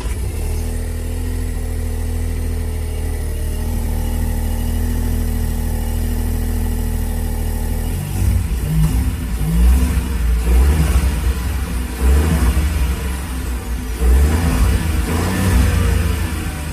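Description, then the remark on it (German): A car engine idles steadily, then revs up and down in repeated bursts while stationary, with a faint turbo whistle riding above the engine roar. No one speaks. “Erhöhte Drehzahl im Stand ist so ein bisschen hört man ein Turbo pfeifen, wenn man mhm.”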